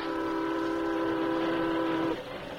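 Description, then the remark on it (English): A steam locomotive roaring toward the listener along railway tracks, not slowing down, sounds a long, steady whistle blast over a loud, rumbling roar, holding for about two seconds before the whistle abruptly cuts off. No voices. “as they rounded a bend in the tracks, they saw the steaming iron horse roaring toward them.”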